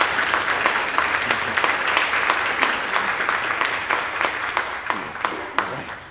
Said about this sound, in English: Now we can do another applause. Yay.